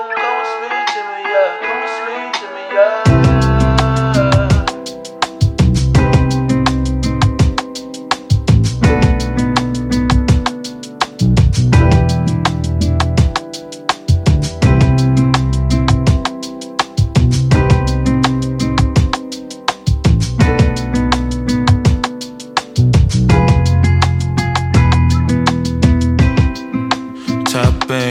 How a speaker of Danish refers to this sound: Den her sang hører jeg, når jeg skal slappe af en gang imellem.